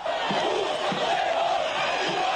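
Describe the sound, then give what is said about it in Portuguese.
Arapiraca fans in a stadium shout and chant to push their team toward victory in a football match. The loud, dense, unbroken roar has a faint recurring low pulse beneath the mass of voices. “A maneira mais eficiente de empurrar o time em busca da vitória foi gritar.”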